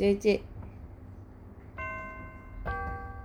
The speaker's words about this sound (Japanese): すごいチャイムじゃん